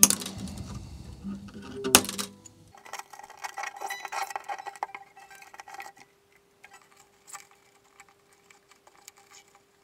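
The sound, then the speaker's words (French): Old, dead guitar strings, first slackened a little, are snipped with a sharp, loud clip, then the loose metal strings rattle and jingle before fading into a faint, lingering ring. “Maintenant, je vais les couper.”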